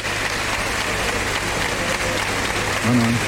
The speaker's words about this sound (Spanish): Fuerte ovación la que se lleva.